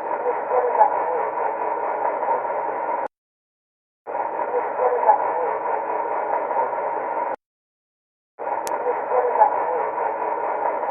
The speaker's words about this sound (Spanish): El investigador cree que en esta cinta podemos oír como una de las voces le responde, Estoy aquí.